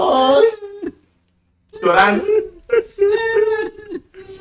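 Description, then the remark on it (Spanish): A mournful, wavering voice wails from behind a wall in Dwarvish, rising and falling in drawn-out cries like someone weeping with deep grief, with a brief silent pause before the lament resumes, fairly loud. “Es un lamento, como si alguien estuviera llorando, pero con un sentimiento, ajá,”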